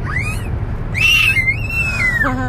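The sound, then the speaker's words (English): A young boy screams in long, high-pitched wails, one short cry followed by a longer sustained shriek, over a low steady background hum with no talking. “I don't know why he's screaming but I don't know.”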